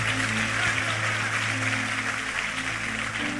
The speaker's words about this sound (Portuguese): Vamos aplaudi-lo bem forte. Vamos celebrar a nossa comunhão.